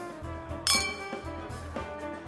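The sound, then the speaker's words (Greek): A man sets his emptied glass down on a table with a bright, ringing clink, followed a moment later by a softer tap, over a quiet, steady tonal background. “Εκείνος άδειασε το ποτήρι του και καθώς το ακούμπησε πάνω στο τραπέζι άγγιξε ελαφρά το χέρι μου.”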